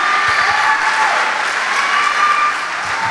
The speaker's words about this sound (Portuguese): Ah, meu irmão, aplauda isso, bata palma, dê um grito de vitória.